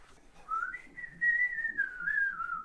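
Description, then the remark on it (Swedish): Someone whistles an imitation of a great tit call: one sustained, slightly wavering tone that rises, holds, then gently falls over about two seconds. Clear, with no talking. “Ah, vad var det där nu då? En talgoxe.”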